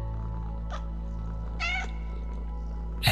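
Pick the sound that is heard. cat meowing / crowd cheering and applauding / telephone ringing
cat meowing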